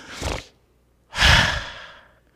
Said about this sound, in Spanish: es mi respiración. Esto es la respiración de cada uno de los hijos de Dios.